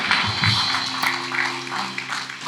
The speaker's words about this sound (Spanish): Vamos, denle un aplauso a Dios.